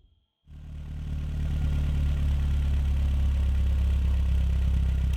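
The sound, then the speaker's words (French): A car engine starts up after a brief silence and settles into a steady idle, its low rumble droning on without change for several seconds, as the driver parks the car. “Ok, ok, je vois la maison. Je, je me gare et j'arrive tout de suite.”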